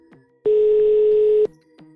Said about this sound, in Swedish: Jag ringer upp Svenska Celiakiförbundets ombudsman för att höra vad de har att säga om det här.